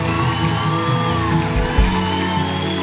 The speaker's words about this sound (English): Somebody shout like it's the best day ever.